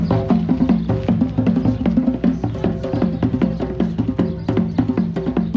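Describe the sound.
Fast, steady hard rock drumming-like sound with dense repeated hits and a pounding low thud, loud and continuous for several seconds with no talking over it, heard out on a balcony; it turned out to come from three guys standing in a park.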